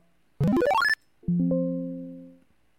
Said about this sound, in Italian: ha finito, abbiamo sentito il suonino della notifica. L'aggiornamento è completo.